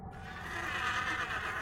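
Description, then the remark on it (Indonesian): A horse whinnies in one drawn-out, wavering neigh that swells slightly toward the end and stays fairly loud, with no talking over it. “Lengkap dengan ringkikannya.”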